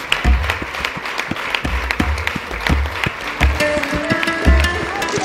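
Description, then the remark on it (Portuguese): An audience applauds steadily, a dense wash of many hands clapping with irregular sharp claps standing out, plus a faint tonal hum in the background throughout. “E agora sim, aplausos a todos que nos estão muito bem.”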